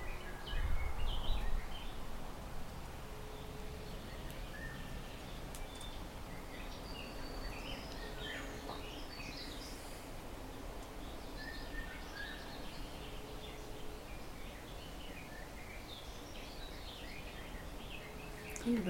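Outdoor ambience with scattered bird chirps and calls, repeating irregularly over a steady low background rumble. No one speaks.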